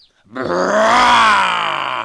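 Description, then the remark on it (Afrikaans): A person does a loud dinosaur roar with their voice: one long, gravelly growl lasting nearly two seconds. It swells in pitch and strength, then falls away as it trails off. “Ek is 'n dinosourus, brul Frans.”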